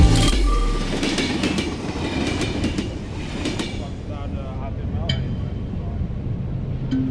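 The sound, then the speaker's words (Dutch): An Intercity train to Alkmaar rumbles along the rails with a steady low roar, faint rhythmic clatter and occasional metallic squeaks, heard from inside the carriage. “Ze stapt in de trein richting Alkmaar en zit volgens de politie alleen in een coupé.”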